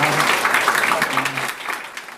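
Steady audience applause fills the moment, dense clapping from many hands with a faint voice briefly audible beneath it, sustained at an even level throughout.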